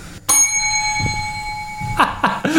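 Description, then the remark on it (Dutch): A small kitchen bell rings once with a sharp strike, its bright metallic tone sustaining and slowly fading for nearly two seconds before other clattering sounds and faint voices follow. “Jij hebt ook een belletje in je keuken.”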